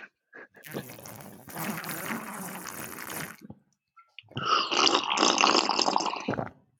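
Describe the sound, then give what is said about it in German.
Two long, loud slurps of tea, each a noisy airy sip lasting a few seconds with a short pause between them and no talking. “Ich durfte auch nicht trinken, und vor allem nicht laut meinen Tee trinken, dass man es Schlucken nicht hört.”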